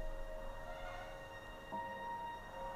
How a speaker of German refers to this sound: hörst du wirklich nicht den Staubsauger?